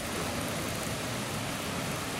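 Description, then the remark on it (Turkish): A heavy rain downpour in Central Anatolia, Turkey, during a holiday, causing floods, roars steadily with dense, hissing noise across the whole clip, loud, no voices, cutting off abruptly at the end. “Bayram günü yaşanan kuvvetli sağanak yağmur nedeniyle pek çok il, ilçe ve köyden mağduriyetin haberleri geldi.”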